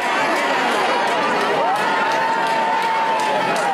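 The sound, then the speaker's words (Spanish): A large crowd at the 2017 protest march in Madrid's Plaza de España, where over 50,000 people from Extremadura gathered under the slogan Tren Digno Ya: a dense, steady roar of many voices with scattered shouts and a few whistle-like tones rising above the din, loud throughout. “Esto derivó, que es lo que estamos escuchando ahora, en la gran marcha que se organizó en Madrid en 2017, en concreto en la Plaza de España, donde se reunieron más de 50.000 extremeños con el lema Tren Digno Ya.”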